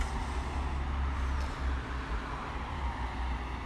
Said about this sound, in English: we do get our fair share of traffic and if the police are going to be going to any side street in this you know I think it's like a mile and a half long maybe two mile street they're going off.